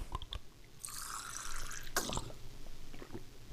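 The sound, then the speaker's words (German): Liquid sounds: a brief sloshing splash, then a sharp watery burst and a few faint drips or swallows as someone quickly downs a pre-mixed electrolyte and magnesium drink after a run. No voices. “So, schnell austrinken.”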